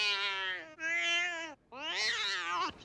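A cat meows three times in quick succession, each cry long, drawn-out and loud, with the last one rising and slightly strained. No one speaks.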